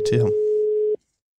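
A steady, single-pitched telephone ringing tone sounds while a call is placed, with a brief bit of voice at the start before the tone cuts off abruptly into silence.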